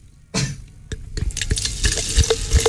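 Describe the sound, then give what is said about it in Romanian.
A freshly opened bottle of Jidvei rosé sparkling wine fizzes after a sudden start, a steady crackling hiss dotted with tiny pops and droplet clicks, with no voices. “Te, te, te deranjează bulele astea, țin, ți intră în, în creier.”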